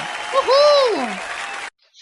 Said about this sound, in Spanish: Así que un saludo. Le vamos a mandar una, pero mona, un aplauso como se debe.